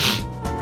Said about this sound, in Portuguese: Saúde.